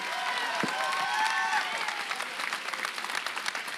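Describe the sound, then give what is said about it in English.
An audience at the Awakening conference applauds steadily for a few seconds, dense clapping with a few cheers and whistles rising over it early on, then settling into even, sustained applause. “О, може би трябва да ръкопляскаш, като чуваш това.”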